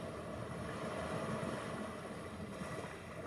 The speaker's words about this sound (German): Du atmest ein, das Wasser des Meeres sucht sich seinen Weg über den Sand vor dir und du atmest aus. Das Wasser zieht sich wieder zurück. Atme nun im Rhythmus des Meeres.